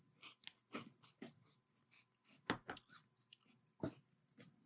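Chewing of crunchy breakfast cereal, a run of sharp crackling bites and grinding chews in an irregular rhythm, with a few soft breaths between them and no talking.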